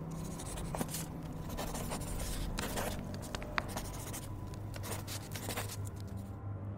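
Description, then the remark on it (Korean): A ballpoint pen scratches steadily across a notepad, with quick strokes and small taps in an irregular rhythm over a quiet hum, as missing supplies such as shampoo and magazines are checked and noted down in a shop. “가게 안은 한동안 모자란 비품을 체크해 메모장에 적는 소리만이 들리고 있었다.”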